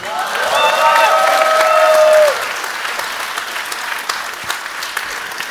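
A crowd breaks into steady applause, with whoops and cheering voices rising over the clapping for the first couple of seconds before the noise settles into continued clapping.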